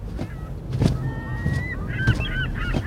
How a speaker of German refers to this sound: Da! Plötzlich saust mit kräftigen Flügelschlägen der Möwenkönig über sie hinweg.